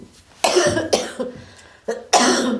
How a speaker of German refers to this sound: So, das wird die Hustenfolge.